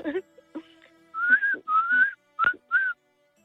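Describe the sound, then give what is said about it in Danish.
A person whistles a short series of four sustained, slightly rising notes with brief gaps between them, fairly loud, with a little breathy noise at the start, whistling their age as a test of their whistling skills. “Du kan derfor meget passende lige fløjte din alder.”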